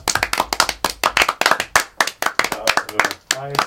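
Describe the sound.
A short burst of applause welcoming a colleague: many hands clapping in a quick, irregular patter, fairly loud and steady for a few seconds, with a brief voice rising over the claps at the end.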